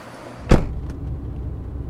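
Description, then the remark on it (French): A car door slams shut once, sharp, over the steady low rumble of an idling vehicle, a blue Hype-brand hydrogen taxi that has stopped; a couple of faint clicks follow, with no voices. “il y a des taxis. Il y a beaucoup de taxis bleus. Et eh oui, ce sont des taxis à hydrogène”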